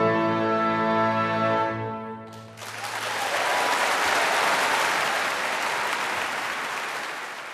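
A sustained musical chord ends and is quickly followed by loud, dense applause from a large audience in Grieghallen, Bergen, for the winner of a first prize. The clapping is steady for several seconds and eases slightly at the end.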